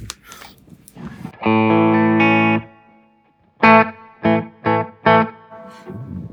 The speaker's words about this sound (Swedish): Man hör ett, ett väldigt kort delay som är så kort så att det nästan blir som ett korus. Där har man det ju.